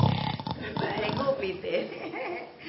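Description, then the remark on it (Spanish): A man mimics his own snoring with a rough, guttural rasp that starts strong and trails into throaty, voiced grumbling over a few seconds. “Y les digo, anoche he escuchado y me he despertado con mi ronquido.”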